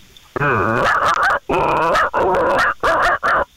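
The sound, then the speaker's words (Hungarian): A person does a loud dog imitation: five drawn-out, bark-like yelps with whiny rises and falls, separated by brief pauses. “Figyelj, jön a kutya.”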